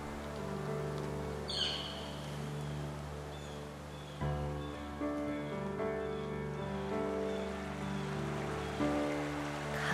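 flowing river water

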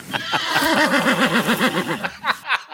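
horse neighing

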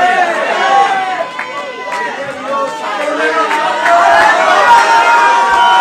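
audience shouting praise

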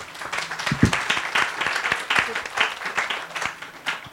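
audience applause

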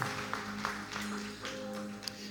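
audience applauding

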